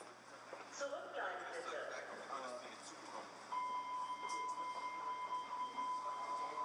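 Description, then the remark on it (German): Inside a Hamburg U-Bahn train, a muffled door-closing voice announcement plays over the steady rumble of the carriage, followed by a sustained electronic warning tone that holds steadily until the end. “Aber immerhin, ich habe mir diese Ansage hier auf dem Handy aufbewahrt.”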